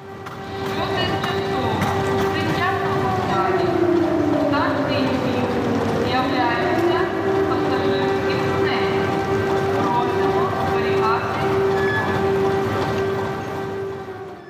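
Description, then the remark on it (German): An air raid siren in Odessa signals an air raid alert, telling the population to go to the shelters, holding a steady, droning wail throughout, with a second tone gliding down and back up midway, outdoors over a constant wash of background noise. “Das ist ein tot äh, ernstes Geräusch, das signalisiert den, den Luftalarm, das sagt der Bevölkerung, bitte jetzt in die Bunker zu gehen.”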